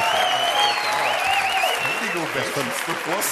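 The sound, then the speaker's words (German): An audience applauds as the hosts come out, a dense, steady wash of clapping that holds for the whole clip, loud and even, while voices talk over it. “Die haben super applaudiert.”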